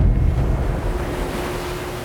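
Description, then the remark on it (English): Steady ocean surf rolling and breaking on a shoreline, a broad low rumble with hissing wash, fairly loud and continuous with a touch of wind, no voices. “She walked and walked until she stood beside an ancient shrine at the edge of the ocean and called out to the horizon.”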